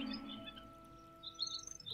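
A cluster of small birds chirps and twitters together in overlapping bursts, fairly soft, with a faint steady hum underneath and a busier flurry of high tweets near the end.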